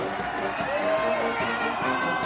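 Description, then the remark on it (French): A large crowd cheers and applauds loudly and continuously for the parade of 25 tractors of the Confédération paysanne, with whoops and shouted voices rising over a dense wash of clapping. “Nous allons défiler avec 25 tracteurs de la Confédération paysanne et c'est cela qu'il faut applaudir très très très très très fort.”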